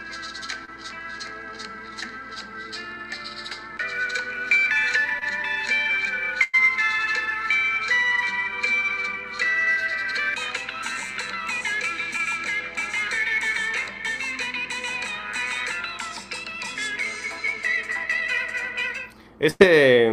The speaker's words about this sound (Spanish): Pero me gusta, me gusta el, está, increíble. Sobre todo porque eh, tiene, una, una intro de como de bolero, ¿no? Te va, te va colocando en el mood de en, en, la sensación, en el humor de, bolero. Después empieza a subir.